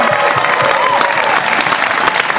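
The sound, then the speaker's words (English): Sustained applause from a sizable crowd, steady and fairly loud, with a few cheers rising over the clapping at the outdoor finish of the 2022 Western States race, for women's champion Ruth Croft. “A big round of applause for Ruth Croft here, your champion.”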